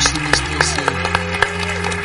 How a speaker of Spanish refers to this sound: Que vamos, eh, vamos con un aplauso.